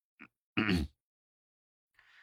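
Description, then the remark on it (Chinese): A short throaty catch followed by one loud, rough, awkward cough-like burst, then quiet with a faint breathy hiss at the end. No talking. “这话说到了高勇的痛处，高勇又尴尬的咳嗽了几声。”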